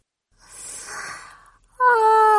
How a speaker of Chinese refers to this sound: 她打了一个大大的哈欠，慢慢的睡着了。